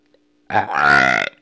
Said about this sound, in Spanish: buen eructo, buen eructo, agarren ese clip, agarren ese clip. Buen eructo, o sea, sonó bien y me gustó. Buen eructo.